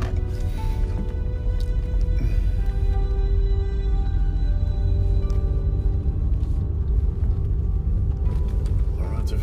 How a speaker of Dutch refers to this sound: oh my god, de storm.